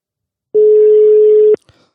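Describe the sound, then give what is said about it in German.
A telephone ringback tone heard while calling: one steady, clear beep lasting about a second, cut off by a sharp click, with no voices. “Ich lüte der ersten Person an.”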